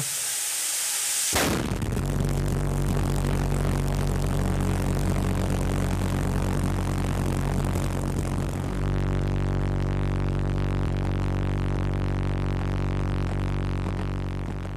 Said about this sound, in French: Donc ça, ça, fait un espèce de ouais, ce, ce bourdonnement mm. caractéristique qui On dirait un gros bourdon en fait. Vraiment un truc bien vénère. En fait, on dirait une sulfateuse. On dirait ma tondeuse.